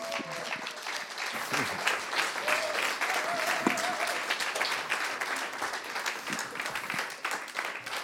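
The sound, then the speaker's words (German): Sustained applause from an audience at an ISF Bern church service as the lead pastors are welcomed onto the stage, a dense, steady wash of many hands clapping for several seconds, with a few faint voices and tones mixed underneath. “Und komm, stöckt auf, geben wir ihnen einen richtigen Applaus und kommt auf die Bühne.”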